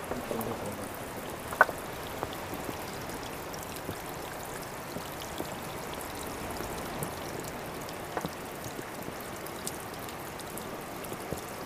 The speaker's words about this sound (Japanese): これ滝の音と海の波の音と両方聞けるって贅沢ここに来るとこう音が反響していいよ